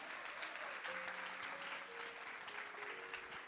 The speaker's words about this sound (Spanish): Si tú eres parte del remanente, dale un aplauso al Señor.